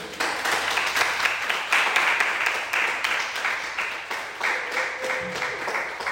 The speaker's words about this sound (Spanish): ¿Lo creen? Otro aplauso a Dios.